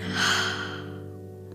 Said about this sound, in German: Atme einmal tief ein und wieder aus. Noch einmal tief einatmen und ausatmen. Und ein letztes Mal einatmen und wieder ausatmen.